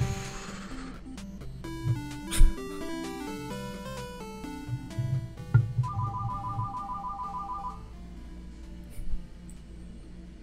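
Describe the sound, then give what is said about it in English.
A phone ringer, accidentally left on, trills in a quick, steady pulsing burst for a couple of seconds, sounding over soft melodic music that plays throughout. No one speaks. “I forgot to turn off my the ringer on the phone here, so oh well.”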